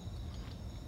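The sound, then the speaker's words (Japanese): Insects chirp steadily outdoors on an autumn night, a thin continuous trill that sounds faint over a low, quiet background hum, with no voices present. “今日は久しぶりに外で撮っています少し外の音聞こえるかしら虫が鳴いてんのよね”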